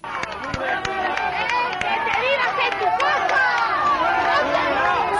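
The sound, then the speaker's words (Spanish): A large outdoor crowd in Madrid roars continuously, many voices booing, shouting and jeering at Madrid mayor Manuela Carmena at once in a dense, loud wall of noise with sharp cries rising above it, at a city hall gathering held in memory of Miguel Ángel Blanco. “Complicado está siendo el día para la alcaldesa Manuela Carmena, que se ha llevado un nuevo abucheo de los madrileños, en este caso en la concentración que el ayuntamiento ha convocado para recordar a Miguel Ángel Blanco.”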